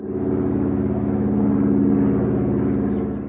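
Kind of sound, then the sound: vehicle, airplane landing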